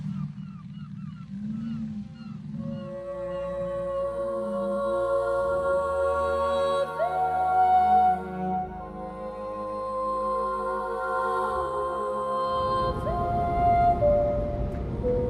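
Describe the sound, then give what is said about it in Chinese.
Southern resident orca calls: several long, tonal whistling cries with sudden upward pitch jumps, heard over a steady, rumbling boat-engine drone that swells louder near the end. “开始建议即将要通过哈罗海峡的船只都要减速行驶，因为那里是南方虎鲸在夏末捕食的地方，而船速越慢，其声音也就相对越小。”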